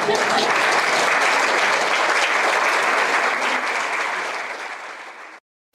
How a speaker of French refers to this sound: Je, je, propose qu'on vous applaudisse parce que vraiment, c'est extraordinaire.